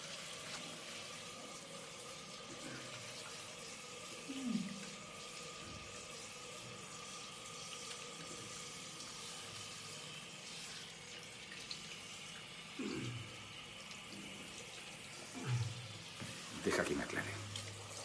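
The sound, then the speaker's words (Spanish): A hand-held shower head runs steadily into a bathtub while a person in the tub has soap put on their back. A continuous broad hiss of spraying water, with a few brief soft thumps and faint murmurs. “En la bañera, jabón a la espalda”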